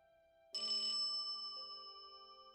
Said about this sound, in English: Ring a ding ding. I heard bell. It must be Santa with his reindeer and his sled filled with toys. Is that you, Santa? No, says Mummy. It's just the telephone.